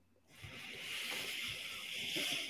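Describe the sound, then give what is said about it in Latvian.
A steady airy hiss of someone drawing hard through a vape tank set to 25 watts, starting abruptly and holding for a couple of seconds, moderately loud with faint low thumps underneath. “Nu, bet gaisiņam ļoti daudz iet. Tiešām, bet nu, skaņa gan ir, ne?”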